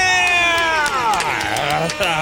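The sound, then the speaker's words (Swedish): A burst of crowd cheering with clapping, loud, with whooping voices swooping over a steady wash of applause for about two seconds; an applause sound effect played in a studio in Stockholm. “Så jag tycker vi kör en applåd och lite tuta på det!”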